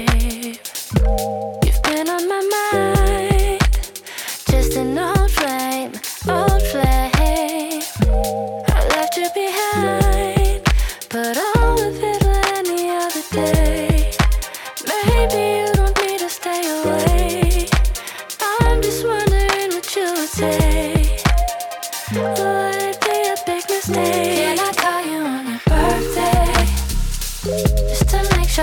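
A song plays loud and continuous for about half a minute, with a steady driving beat, bass, and a bright melodic line over full-band accompaniment. No one talks over it.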